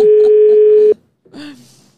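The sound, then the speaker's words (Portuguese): A single steady electronic ringback tone of an unanswered phone call buzzes loudly for about a second, then cuts to silence before a brief voice sound follows. “Atende o telefone.”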